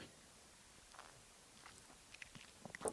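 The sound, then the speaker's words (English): Soft mouth sounds of someone sipping 90-proof bourbon whiskey from a glass: quiet slurps and wet clicks that grow busier toward the end, with no talking. “Ah, just a nice little swig there.”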